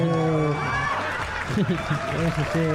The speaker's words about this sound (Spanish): Y vamos a empezar un nuevo episodio de Los Huéspedes. ¡Aplausos!